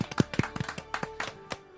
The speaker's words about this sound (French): Le, le grand gagnant du, de ce prix-là est Hellboy 2019. Hellboy 2019. On on peut applaudir. Hellboy 2019.